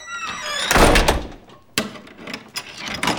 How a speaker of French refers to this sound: Là-dessus, Monsieur Seguin emporta la chèvre dans une étable toute noire, dont il ferma la porte à double tour.